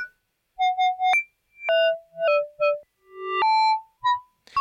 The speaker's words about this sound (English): it will transform, I'm gonna manually play it, it will transform a very percussive sound into its reversed copy, like this.